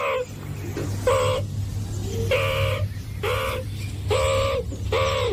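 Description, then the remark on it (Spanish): A meerkat standing upright as a sentinel gives about six loud, harsh calls in a steady series, each a short, bright, nasal note with a clear pitch, over a constant low rumbling hum. “se mantienen como vigilantes, se ponen de, pie y miran todos, como los girasoles, cabeza para un lado, cabeza para otro, como si fuera un partido de eh, tenis el que estuvieran viendo, y emiten unos sonidos muy característicos.”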